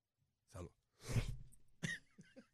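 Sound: choking cough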